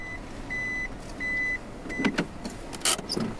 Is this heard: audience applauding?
no